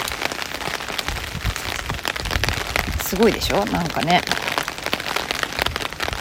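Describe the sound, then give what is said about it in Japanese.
Steady heavy rain patters on surfaces outdoors on a cold day, with some wind, a dense hiss of droplets running through the whole recording while a woman, walking, speaks briefly partway through. “外で撮ったので環境音(雨音、風の音)があります”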